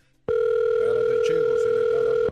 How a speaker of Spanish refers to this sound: A ver, márcale. Ah, no bueno, vas a marcar. No este número. Como dicen ahí, suena un teléfono.